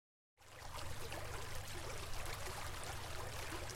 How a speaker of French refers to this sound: C'est juste l'eau qui tape un peu fort contre la coque.